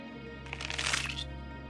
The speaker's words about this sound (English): I continued to twist and yank with my vice like grip. I felt the crunching and oozing of now gelatinous bone pulling away from the muscle.